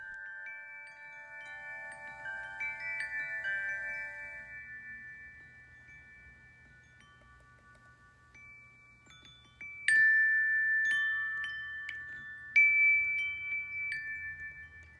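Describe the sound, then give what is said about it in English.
Wind chimes ring through a bedroom window on Milwaukee's East Side, several metallic tones overlapping and sustaining, with fresh strikes brightening the sound twice near the end, over a soft low rumble. No one speaks. “The sound of wind chimes, particularly through my bedroom window, is such a beautiful addition to my days working from home.”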